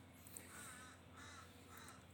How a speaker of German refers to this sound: die Raben sind gerade hier ein bisschen laut.